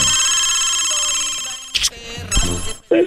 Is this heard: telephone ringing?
yes